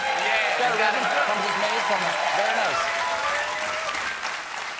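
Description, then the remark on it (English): Dense, sustained applause from a large audience fills the room, steady and loud before tapering slightly at the end, with faint voices mixed into the clapping. “They were laughing, sure, but they weren't releasing any nervous energy or recognizing their own distance from reality. They were just clapping along”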